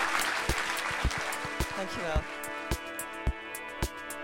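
An audience applauds with a dense, crackling burst that thins out over a few seconds, while steady rhythmic thumps and sustained tones continue underneath.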